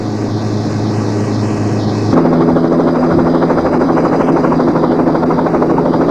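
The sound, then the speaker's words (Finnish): A helicopter drones steadily, its rotor producing a dense, pulsing whir with a low engine hum; the pitch shifts and grows slightly louder partway through as it passes. “Siinä on helikopteri. Varmaankin seuraa meitä.”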